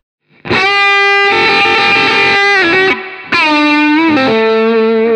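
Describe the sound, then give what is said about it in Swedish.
An electric guitar runs through an overdrive pedal with the drive turned all the way up, ringing out loud, thick, fuzzy sustained notes that shift pitch a few times, with no talking. “dra upp driven till max där på det här.”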